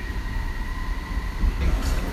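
An airport terminal train serving Terminals 7, 5, 4, 2, 1 and 8 pulls in with a steady low rumble and a thin electric whine, its noise growing slightly louder and rougher toward the end as it arrives.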